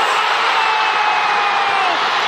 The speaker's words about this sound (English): it's the anticipation, the, then the moment of silence when only the horn sounding, then the crowd goes wild. Love it. It's it's just magnificent.